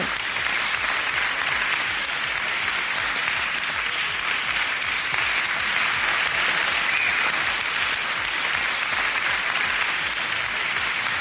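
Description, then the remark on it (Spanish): Sustained applause from a crowd of fans, a dense, steady wash of clapping that holds at an even, fairly loud level for the whole stretch without fading or breaking, with no voices standing out. “Todos los aplausos juntos que han faltado en otros programas.”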